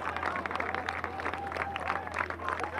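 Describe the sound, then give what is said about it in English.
A crowd applauds steadily as the final swimmer crosses the finish line of a swimming event, dense clapping filling the whole stretch with a constant wash of noise, a few cheers and voices mixed in, and a low steady hum running underneath. “The biggest round of applause for today, as you can hear.”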